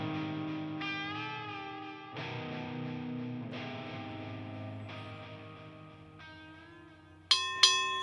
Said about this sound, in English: That is the bell to round number three of fight number five, Pacific Coast Boxing.